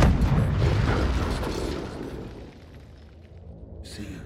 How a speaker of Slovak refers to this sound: A v tej chvíli proste niečo vonku vybuchlo, ale bol tak extrémny výbuch, že na prvom poschodí vyrazilo okna.